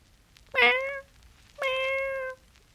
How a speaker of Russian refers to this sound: Он с трудом добрался до дома и уже, подходя к подъезду, вдруг увидел прелестного черного котенка — сжимающегося в комок от страха.